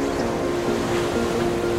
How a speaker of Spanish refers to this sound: Cuando tú te metes al mar, lo que sabes que te vas a encontrar es este espacio interminable. Son kilómetros y kilómetros donde lo único que sabes que va a haber es vientos y olas.